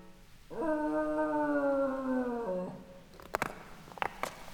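A dog standing at the edge of an abyss lets out one sustained, mournful howl lasting about two seconds, its pitch sagging slightly at the end, followed by a few sharp clicks and knocks.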